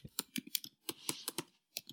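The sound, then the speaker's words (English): Rapid, uneven keystrokes on a computer keyboard, a dozen or so sharp clicks in quick bursts with short pauses, fairly quiet, with no voices. “I'm sorry, I'm typing.”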